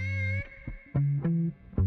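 A white-eared night heron (Hainan night heron), a bird that seldom calls, calling: a run of four or five low, droning hoots with brief gaps between them, each buzzy and rich in overtones, slightly distorted, with no voices.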